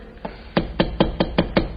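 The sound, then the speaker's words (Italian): A nail being hammered into a wall to hang a picture: six sharp, evenly spaced blows in quick succession, the first lighter, the rest loud and percussive, with no voices. “Io direi che il chiodo va piantato qui. Sì, sì, sì, sì, questo è il punto esatto. Allora, martello.”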